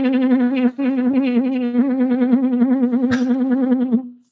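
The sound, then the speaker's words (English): A loud, continuous distorted buzzing like a swarm of bees, with a steady droning pitch and wavering rhythmic flutter, briefly dipping once before carrying on and cutting off. “Found it. Found the bees.”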